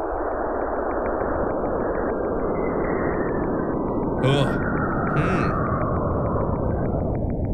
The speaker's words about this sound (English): It's how it sounds if you transfer that into an audio wave. That's right. I'm with you. Now- I'm a sound guy. Oh, yeah, you are a sound guy. Using my kit now. This is very creepy, this one. Now, this is the sound of Saturn.